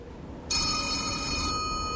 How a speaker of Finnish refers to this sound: No kuka sieltä nyt ymmärsi soittaa? No, ainahan se on kohtilijasta puhelimeen vastata.